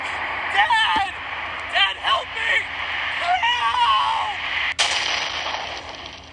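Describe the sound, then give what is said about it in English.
A video game spaceship crash: rumbling, explosive booms build up, then one sharp, loud impact near the end, with strained voices crying out over the din. “But sound like we crashed pretty good, huh?”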